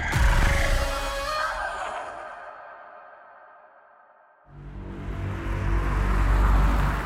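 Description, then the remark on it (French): A police car on patrol drives by outside in a village, its engine rumble and road noise fading away to near quiet, then swelling back loudly as another pass approaches. No voices. “Dehors, une voiture de police fait sa ronde.”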